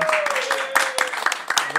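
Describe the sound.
A crowd breaks into a round of applause, many hands clapping in a dense, steady patter with a few sharper claps standing out, mixed with voices and a faint sustained tone.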